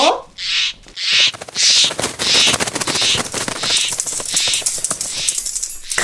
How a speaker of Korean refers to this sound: 그때였습니다. 한 번도 들어본 적이 없는 새 비명을 들었습니다.